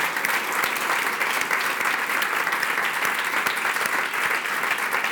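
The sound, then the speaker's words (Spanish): A large audience applauds the Lord loudly and steadily, a dense wash of clapping that holds at full volume for several seconds without any voices breaking through. “¿Qué tal si le das un aplauso al Señor? Le das un aplauso fuerte.”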